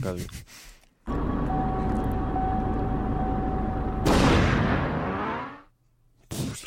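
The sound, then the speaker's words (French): Audio from the racing video game Trackmania Nations Forever: a loud engine drone with a steady whine holds for several seconds, then bursts into a brighter roaring rush that fades out, with brief voices at the start and end. “C'est chelou, c'est Trackmania Nation ah, Forever.”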